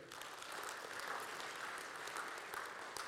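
A Faith Covenant Church audience applauding the amount raised in a three-year church campaign, a steady wash of many hands clapping at once, even for a few seconds, dense and sustained without breaks.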